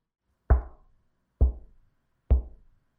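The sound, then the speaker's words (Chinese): Three soft knocks on a door, evenly spaced about a second apart, each a dull thud that fades quickly, with silence between them and no voices. “正当大家议论纷纷的时候，突然间。听到了微弱的敲门声，”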